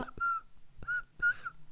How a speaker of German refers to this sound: ich kann nicht pfeifen.